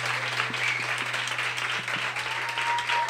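Steady, dense applause from a crowd, a continuous wash of many hands clapping at even loudness for a few seconds, with a low steady hum underneath.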